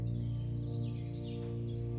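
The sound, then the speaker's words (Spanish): Soft birdsong of birds in a forest twitters faintly in the high range, continuous, layered over a steady, loud low humming drone like an ambient music bed. No one speaks. “Puedes escuchar el trinar de los pájaros,”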